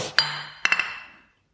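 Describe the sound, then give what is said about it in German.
Glasses clink together in a toast: one bright clink, then a quick cluster of three more, each leaving a high ringing tone that fades out. No one speaks. “Prost. Zum Wohl.”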